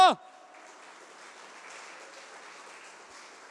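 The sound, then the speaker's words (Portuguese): An audience applauds Jesus loudly, a dense, steady wash of many hands clapping for several seconds, just after a short burst of voice at the very start. “Pode aplaudir Jesus bem alto!”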